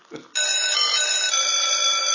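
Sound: doorbell ringing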